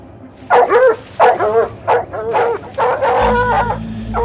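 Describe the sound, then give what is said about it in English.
Several cadaver dogs, trained to find human remains, bark and yip in quick, overlapping bursts while searching a backyard, fairly loud, with a whiny, howling edge; a low steady rumble rises underneath near the end. “they brought in a team of cadaver dogs, dogs trained to find human remains.”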